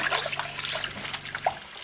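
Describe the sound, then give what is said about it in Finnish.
Running water splashes and gurgles steadily as burbot are rinsed to wash off most of the blood, with brief sloshing bursts and a faint low hum underneath; no one speaks. “huuhellaan nämä matikat enimmät veret pois.”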